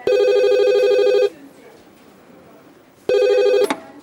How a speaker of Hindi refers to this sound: यहां से करीब 200 किलोमीटर दूर कोलकाता में 14 अगस्त उन्नीस मिठुन की डेस्क पे फोन की घंटी बजी